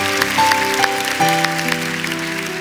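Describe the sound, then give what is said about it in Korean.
An audience applauds to give glory to God, a dense, steady wash of clapping for under three seconds, while sustained keyboard or organ chords hold underneath. “하나님께 우리 영광의 박수를 올려드리겠습니다.”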